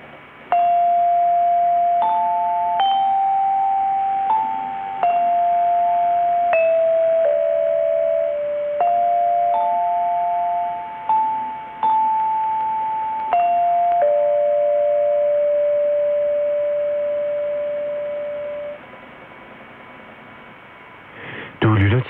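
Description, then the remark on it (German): A radio interval signal plays a slow, repeating chime-like melody of sustained bell tones over steady hum and faint static, as if received over a longwave broadcast. “leitet seine Sendungen auf 243 kHz mit einem mehrminütigen Pausenzeichen ein”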